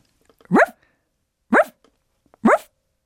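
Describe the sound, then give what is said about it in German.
A woman imitates a dog barking: three short, rising yips spaced about a second apart, fairly loud, with quiet gaps between and no talking. “warum machst du dieses Hundegeräusch zur Eröffnung dieser neuen Folge?”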